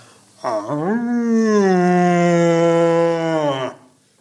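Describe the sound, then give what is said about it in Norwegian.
A single long, deep roar from a red deer stag in rut, loud, swooping up from a low grunt into a sustained bellow for about three seconds, with nothing else around it. “du forteller meg at du kan følge med på VM i eh, hjortebrøling?”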